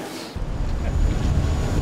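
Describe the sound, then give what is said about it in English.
A tour boat on the River Thames in London, travelling from Canary Wharf toward the London Eye, rumbles along on the water, its low engine drone mixed with steady wind buffeting the microphone and the wash of water, loud throughout. “We're on the Thames River boat here.”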